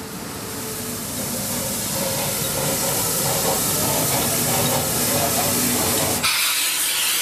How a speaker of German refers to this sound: Die Gleise hier sind schmaler als an den anderen Bahnsteigen und jetzt fährt der Zug ein, auf den alle warten. Die Schmalspur-Dampfbahn von Uppsala nach Lenna und Varinge.